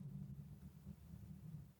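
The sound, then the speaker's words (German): A low, muffled engine rumble from a car passing outside, steady and fairly faint, with no voices over it. “Ich hoffe, ihr habt das Auto gerade draußen nicht gehört.”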